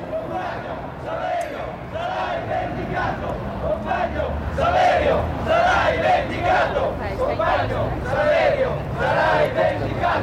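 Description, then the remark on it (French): A large crowd chanting and shouting in rising, rhythmic waves, like a street demonstration heard over a radio, the noise dense and continuous throughout with no clear individual voices. “Depuis la radio, on entend des échos de manifestations.”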